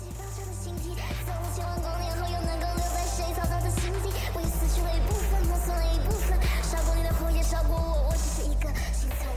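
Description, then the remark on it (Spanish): A loud Taiwanese-language rap track by a female rapper, driven by a steady, punchy hip-hop beat with deep bass that fills the mix and grows fuller partway through, with no one talking over it. “todo lo que están escuchando es rap en taiwanés de una rapera taiwanesa”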